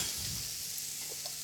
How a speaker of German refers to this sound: Und dieses Geräusch, wenn man Dinge ablöscht. Klingt auch so nötig. Naja, jetzt war die Pfanne ja schon ein bisschen erkaltet. Aber jetzt müssen wir halt viel, ähm, viel rühren um halt den Ansatz hier unten zu deglassieren